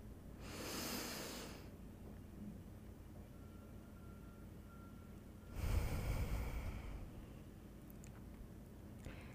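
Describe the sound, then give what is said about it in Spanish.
Two slow, airy breaths during a guided breathing exercise with hands placed on the chest, a long inhale followed several seconds later by a heavier exhale, against a quiet, faintly humming background with no talking. “Ahora coloca tus manos sobre tu pecho y toma una respiración profunda.”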